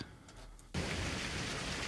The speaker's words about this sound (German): Beziehungsweise heute ein kleines Gewitter.